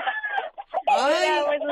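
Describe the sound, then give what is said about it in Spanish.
Roosters being fed cluck in short, choppy bursts, then one lets out a loud, drawn-out crow that rises and holds before trailing off, heard over a phone call from Tehuacán, Puebla, Mexico. “Estoy alimentando gallos.”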